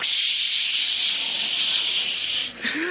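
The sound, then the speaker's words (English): A steady, bright hiss of body spray from an aerosol can runs for about three seconds without a break, dipping briefly near the end before resuming. No one speaks over it. “If you're not going to take a bath, put that spray on you.”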